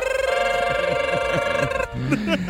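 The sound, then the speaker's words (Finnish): An alarm clock rings on the Finnish radio morning show Energin aamu, marking the common 7:30 wake-up time after a countdown. It gives a steady, buzzing high-pitched tone for almost two seconds, with voices murmuring underneath, then cuts off as someone starts talking. “Aika yleinen heräämisaika on puoli kahdeksan ja monella kello pirisee muutama sekunnin päästä.”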